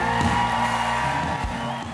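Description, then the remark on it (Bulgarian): An audience applauds and cheers, a dense, steady wash of clapping with raised voices and whoops mixed in, loud and continuous throughout. “Който ръкопляска вярва. Който ръкопляска приема.”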